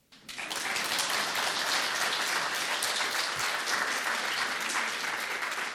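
An audience bursts into sustained applause for the show Prizma optimizma, many hands clapping densely and steadily at a fairly loud level for several seconds after a quick rise at the start, with no talking over it.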